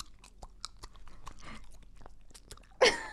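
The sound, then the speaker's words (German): Someone chews sugared gum, a run of soft, wet smacks and clicks at an uneven pace, ending in a louder, sharper crackle. “Das ist wahnsinnig komisch mit Kaugummi, aber du hast mir den Freibrief gegeben.”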